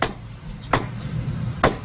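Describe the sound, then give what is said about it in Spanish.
Tortoise shells knocking together during mating, shell against shell, in sharp, hard clacks, three distinct hits spaced irregularly over a low steady background rumble, like wood being struck. No voices are heard. “está martillando el caparazón.”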